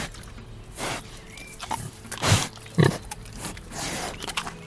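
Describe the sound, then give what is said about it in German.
Two pigs grunting and snuffling in short, irregular bursts, with a few louder grunts standing out over faint outdoor background noise and no talking, on a mountain farm in the Schnalstal valley, South Tyrol, as their farmer calls them. “Jetzt gerade ruft er nach seinen beiden Schweinen. Und erstaunlich, sie gehorchen.”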